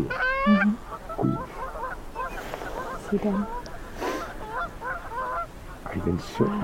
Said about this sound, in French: Devant nous, dans un espace d'eau libre, des oies sauvages se font la cour.